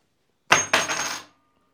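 A tossed coin lands heads on a hard surface with a bright metallic clink, then a second impact followed by a ringing, rattling spin that settles within about half a second; no voices.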